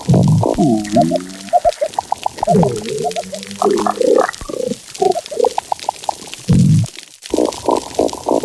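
Low, muffled grunting and rumbling calls from fish, a series of gurgly pulses and burbling bursts that come and go in irregular clusters, with short gaps between them and no talking.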